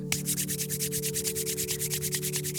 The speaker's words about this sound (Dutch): Wrijf je handen even helemaal warm.